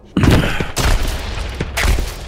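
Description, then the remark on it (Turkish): Loud, chaotic bursts of video game gunfire and explosive booms in quick succession, three heavy blasts with rattling shots between them, dense with no talking. “Devamlı çatışma var, devamlı bombalar patlıyor, silahlar ateş ediyor.”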